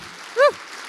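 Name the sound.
audience applause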